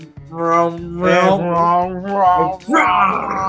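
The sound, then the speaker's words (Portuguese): Godzilla's roar: a series of loud, drawn-out bellowing cries with a rough, harmonic tone, wavering in pitch and rising into a harsher, shrieking burst at the end. “Esse é o grito do Godzilla.”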